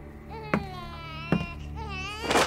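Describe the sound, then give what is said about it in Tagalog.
A baby cries in thin, high-pitched wails that rise and fall in a few drawn-out bursts, moderately loud, broken by brief sharp knocks and ending in a harsher, noisier sob. “Sa, sa galing, Parang iyak ng sanggol.”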